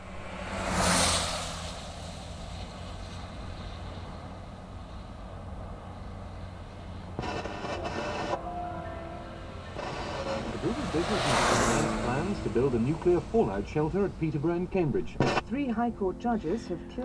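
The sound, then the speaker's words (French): A car roars past with a rising then falling whoosh showing the Doppler effect, then a second passing car sweeps by later, its pitch dropping as it recedes, with a voice and music entering near the end. “on a un titre euh, des, des qui commence par euh, un enregistrement d'une euh, voiture qui fait entendre donc cet effet Doppler”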